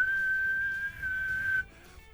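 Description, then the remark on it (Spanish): A person whistles one long, steady, high note, clear, with a brief break partway through, imitating the jeering whistle of diners in a restaurant in Argentina. It lasts about a second and a half, then stops. “En Argentina me tocó estar en un restaurante donde entró un personaje que tenía algún tipo de vínculos con la dictadura allá y la gente primero empezó a chiflar, pero no a chiflar así, empezó con un silbido como...”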